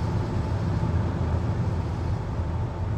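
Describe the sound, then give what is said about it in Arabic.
A steady, low engine rumble of the group's cars fills the scene, holding at an even loudness throughout with no voices, like vehicles rolling in. “بص بص هناك دي عربيات المجموعة”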